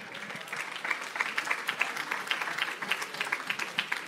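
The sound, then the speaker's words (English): A round of applause from several people clapping steadily for a few seconds, with dense, overlapping claps at a moderate, even volume and no talking. “Now it's it's good that we clapped him, clapped for him”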